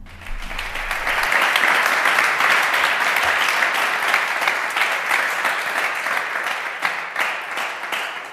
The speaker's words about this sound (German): Ja, meine Damen und Herren, herzlich willkommen. Äh, begrüßen Sie an dieser Stelle mit einem vielleicht äh, fast schon unnatürlichen Applaus, vielleicht nochmal äh, zwei der drei AutorInnen dieses Buches,